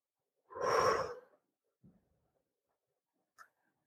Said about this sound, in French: Une petite respiration, ça fait toujours du bien quand il y a une intensité qui monte.